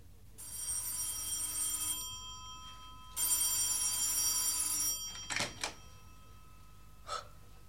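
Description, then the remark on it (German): A telephone bell rings at about two o'clock at night in two long bursts separated by a short pause, fairly loud, followed by a few brief breathy sounds like a gasp. “Nachts um zwei etwa schreckte mich das Telefon aus dem Schlaf.”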